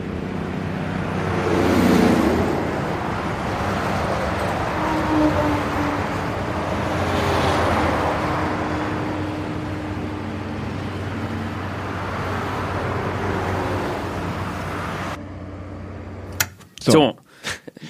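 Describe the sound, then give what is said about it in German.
A steady, broad roar of distant traffic on the A4 motorway, swelling softly now and then as vehicles pass, with a low hum underneath. It cuts off near the end, followed by a few sharp clicks. “Von ferne her rauscht die A4, fast wie der Ozean.”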